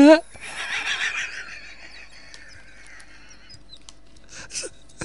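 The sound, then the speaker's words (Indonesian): A person gives a loud, shaky whinny in imitation of a horse, trailing off after about a second, followed by quiet breathy noises and a brief vocal burst near the end. “Ayah di kamar tuh, kuda iya. gadrek, kuda gadrek.”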